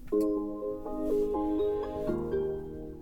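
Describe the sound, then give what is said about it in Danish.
An electric car starting up, heard as a clear electronic chime of sustained tones stepping through a few pitches over about three seconds, steady in loudness, with no talking. “Jeg er blevet ejer af en elbil”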